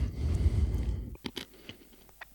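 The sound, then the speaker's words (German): Chewing of coarse whole-grain bread with a light flour coating: a muffled low rumble at first, then several soft, irregular crunchy bites spaced apart, with no talking. “Man merkt halt, dass es richtig schön grob ist. Da muss man auf jeden Fall gut kauen.”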